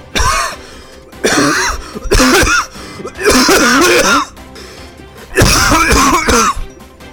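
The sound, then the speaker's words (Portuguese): A series of loud sneezes, four forceful bursts in a row with short pauses between, each breathy and throaty, with no other sounds around them. “saúde, Deus te leve.”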